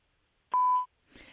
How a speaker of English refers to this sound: At the tone, please record your message.